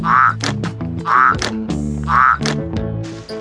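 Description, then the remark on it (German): Toads croaking three times at an even, unhurried pace, each croak a short rising gurgle, over a steady bed of sustained musical tones. “Und die Olchi-Kinder hüpfen mit den Kröten um die Wette.”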